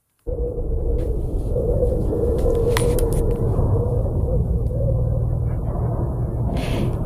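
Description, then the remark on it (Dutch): A deep, steady rumble from the planet Mars sets in abruptly and holds at a constant, fairly loud level, with a faint windy hiss and occasional crackles above it, and no voices. “Dit, dit is niet het geluid op Mars, dit is het geluid wat Mars produceert.”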